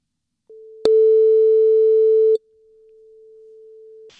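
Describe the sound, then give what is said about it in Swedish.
A telephone ringback tone plays while a call goes through: one steady, unbroken low beep that starts softly, jumps louder with a click, then drops back quieter and holds until it stops. No talking. “nu tänkte vi kasta oss in och ringa upp några och vi börjar ringa till Malin Hermansson”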